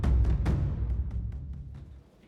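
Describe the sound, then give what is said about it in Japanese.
Heavy rain splashing down in a dense, steady wash with a deep rumble beneath and scattered sharp splats, loud at first and gradually fading away. No one speaks. “彼はこの場で合流した複数の男たちと共に雨のしぶきの中に消えていった”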